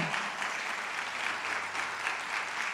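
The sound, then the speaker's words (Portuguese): An audience applauds together for Jesus, a dense, steady wash of many hands clapping at moderate volume throughout, with no voices standing out. “Dê uma salva de palmas a Jesus, porque Ele é bom.”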